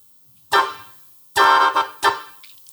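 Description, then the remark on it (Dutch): A Laotian bamboo mouth organ with 14 tones, all holes closed to give one big chord, sounds three loud, reedy chord blasts: one long, then a sustained one with a swell, then a shorter one, each rich and buzzing with no talking. “het ziet eruit als een twee panfluits op elkaar geplakt.”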